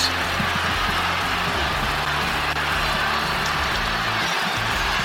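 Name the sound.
arena crowd cheering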